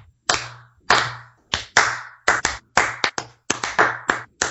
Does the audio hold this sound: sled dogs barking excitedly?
no